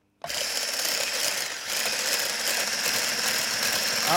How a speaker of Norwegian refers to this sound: Den er ikke helt klar ennå, den sjokoladen. Jeg, jeg, må piske litt mer. Ok, ta og pisk litt mer.